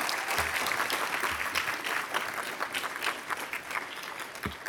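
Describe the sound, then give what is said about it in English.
A crowd applauds steadily, dense overlapping clapping that holds at a fairly even, moderately loud level for several seconds with no voices breaking through. “I just wanted people to clap for you because it was it was looking good.”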